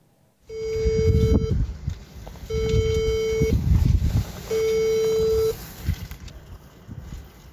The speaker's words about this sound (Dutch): Het naambordje mag dan niet kloppen. We besluiten toch om aan te bellen.